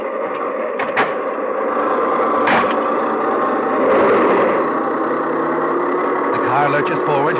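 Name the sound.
car engine running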